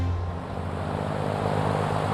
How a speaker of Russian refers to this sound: Двигатели запущены. Самолет начинает двигаться к взлетно-посадочной полосе.